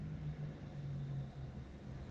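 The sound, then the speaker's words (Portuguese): Steady low rumble of a car interior while driving, with a droning engine hum and a constant wash of road noise, fairly quiet and even throughout, no voices. “Eu tô no carro.”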